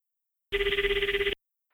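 A telephone rings in one short burst lasting under a second, a rapid warbling trill, fairly loud, as a call is placed from a public payphone, with silence before and after and no voices.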